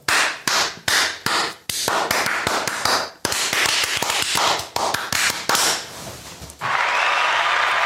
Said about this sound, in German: werden wir jetzt äh, den absolut unwiderlegbaren Beweis erbringen und uns in die Hände klatschen. Und uns anfassen. Das ist nämlich etwas. Aua! Jetzt könnte man auch sagen, ich habe einfach selber in meine Hände geklatscht, aber jetzt pass auf.